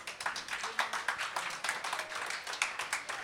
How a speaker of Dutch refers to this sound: Dames en heren, geef haar een daverend applaus.